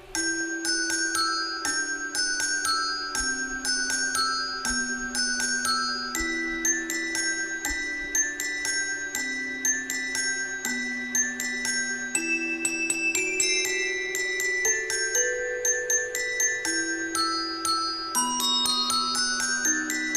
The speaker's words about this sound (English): And they did this fantastic performance piece, one of which includes uh, the holiday classic Carol of the Bells, all performed by multirotors.